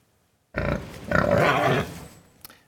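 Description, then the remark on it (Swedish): A group of voices from a school class imitates a pig during a sound check, letting out a loud, rough oinking and grunting burst that lasts about a second and a half before trailing off, followed by a brief click. “Ni låter som en, låter som en gris.”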